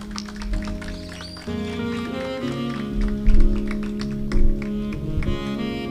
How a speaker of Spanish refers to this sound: Recibamos con un fuerte aplauso a nuestros alumnos.